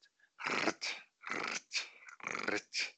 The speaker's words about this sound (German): Dieses unverwechselbare Knirschen wenn man durch Schnee stapft.